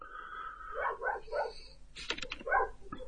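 Dogs barking and yelping in a quick run of sharp, moderately loud bursts: a few whiny yips first, then rougher, harsher barks, with no talking.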